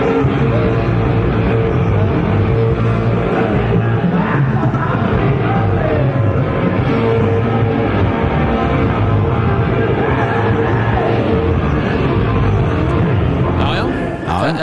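A live rock concert recording plays loud and dense for the whole stretch, with full-band sound, crowd noise and shouting blended into a steady, roaring wall.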